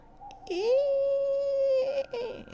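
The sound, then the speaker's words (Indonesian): A voice imitates a shrill, horse-like eerie cry heard from the right-hand stall of a toilet: one sustained, steady wail held in a single breath for about a second and a half, fairly loud, trailing off with a brief wavering tail. “Suaranya tuh kayak suara kuda, tapi kayak satu tarikan nafas kayak”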